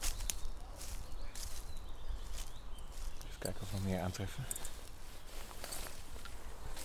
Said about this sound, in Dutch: Nou, hier een klein stukje lopen met het doek. En dan zie je zo 1, 2, 2 teken nog.